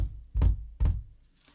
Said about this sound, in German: Und dann habe ich mir vorgestellt, wie mein Higher Self neben mir sitzt und mich so anguckt und weißt du so die die Hände so verschränkt und so auf den Tisch klopft